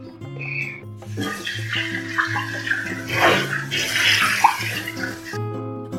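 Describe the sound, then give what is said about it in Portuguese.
Tap water runs for about four seconds while a blender is rinsed, a steady splashing hiss with uneven sloshing, set against a constant low hum and no talking. “Lavei um pouco o liquidificador.”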